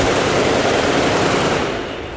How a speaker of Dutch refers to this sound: wordt heel veel in de lucht geschoten. Maar door mannen die duidelijk niet heel voorzichtig met de wapens omgaan.